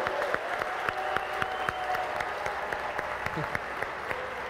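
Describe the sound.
A church audience applauds the Lord loudly, with dense, sustained clapping from many hands and a few voices faintly audible beneath it.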